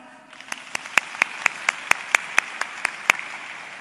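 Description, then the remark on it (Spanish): Energetic applause given as an example of a quality applause: about a dozen sharp, loud claps in a steady, quick rhythm, building slightly after the first few, over a low background hiss. “¿Cómo sería un aplauso de calidad?”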